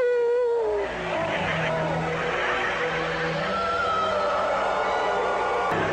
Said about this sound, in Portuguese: Miau!